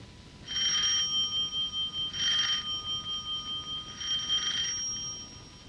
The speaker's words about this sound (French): Numéro 3 de la rue Bergère, à droite sous la porte cochère. trois coups de sonnette, on ouvrira.